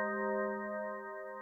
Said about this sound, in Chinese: 他刚握住商店的门把手，迎客门铃清脆的声音就响了。